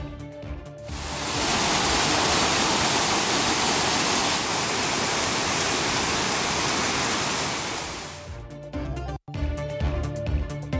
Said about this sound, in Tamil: ஊட்டியில் தொடர் கனமழை எதிரொலி நீர்வீழ்ச்சிகளில் ஆர்ப்பரித்து கொட்டும் தண்ணீர்